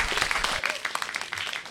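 A crowd at a stage show applauds to welcome the next guest, with dense, rapid clapping that holds at a steady level through the whole short stretch, with a faint murmur of voices mixed in.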